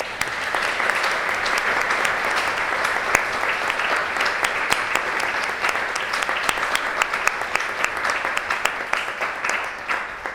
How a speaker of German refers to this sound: Dann würde ich mal sagen, Applaus für diesen schönen Vortrag.